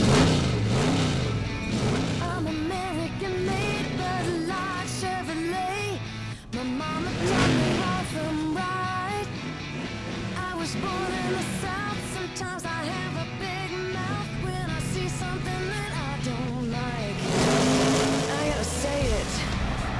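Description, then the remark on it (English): Car engines rev and roar continuously with rising and falling pitch, loud, mixed with music and voices speaking over the racing noise. “Oh, I know that sound of those engines makes your heart go pitter pat if you're a car guy like me, and you're thinking, wow, what classic might that describe?”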